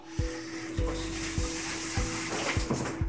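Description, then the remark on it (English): Steady hissing spray of shower water running, with a faint low hum underneath and soft thuds recurring about every half second. No one speaks. “Okay, so I am in the in the shower.”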